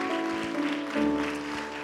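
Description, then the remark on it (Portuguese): An audience at a Christian worship service applauds the Lord in a steady, dense wash of clapping, blended with sustained keyboard chords that hold beneath it throughout. “Aplauda o Senhor, aleluia, glória a Deus.”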